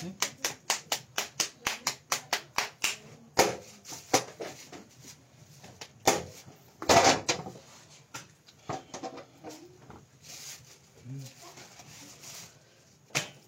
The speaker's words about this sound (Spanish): Según te quieres lucir torteando.